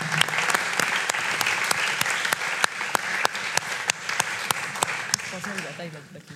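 An audience applauds steadily, a dense crackle of many hands clapping at an even loudness throughout, with a few sharper, louder claps standing out above the wash.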